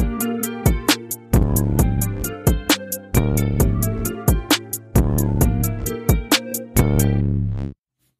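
A hip-hop beat plays on its own, with punchy, evenly spaced drum hits over sustained low bass and layered harmonic tones, ending abruptly after about seven seconds. No one talks.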